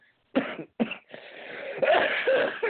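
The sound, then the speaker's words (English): A person with a cold gives two sharp coughs in quick succession, followed by a longer, raspy coughing fit that stays loud and rough until the end. “Um, excuse me, still battling the cold here uh, trying to get over it.”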